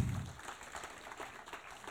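A church audience applauding Jesus during a morning worship service, a dense wash of many hands clapping steadily at moderate volume, with a brief low thump right at the start and no voices over it.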